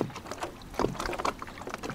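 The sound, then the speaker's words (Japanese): A pedal kayak churning through water as it is pedaled with the feet placed far forward on the pedals, with repeated splashing, sloshing bursts in a loose rhythm and a steady low rush underneath, moderately loud and without voices. “今度つま先がずっと前の方にペダルずっと前の方にもっと前行きましょうかもっと前、はい、もっと前もっと前行ってみましょうかはい、はい、そこでちょっと漕いでみてください左側ちょっと握りながら、はい、そうすると、負荷がかかって今度あの漕ぎ味が変わってきます”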